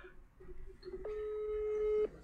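A telephone ringback tone sounds once through the line, a steady electronic buzz lasting about a second, after a brief stretch of quiet background hiss.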